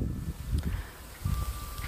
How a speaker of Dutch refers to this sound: En het gaat nu even heel hard waaien.